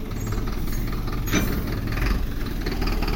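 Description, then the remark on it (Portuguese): The engine of a large Magazine Luiza delivery truck rumbles steadily, a low continuous drone with a brief hiss midway, as the truck turns around slowly on the street after making a delivery on a Wednesday night. “Agora o caminhão da Magazine Luiza tava tá saindo aqui, fazendo a volta, tava entregando coisa para alguém numa quarta-feira de noite.”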